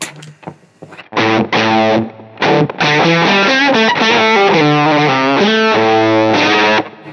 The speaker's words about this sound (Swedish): Ska vi visa oktavfusson här in igen? Ja. gör vi också. Varsågod.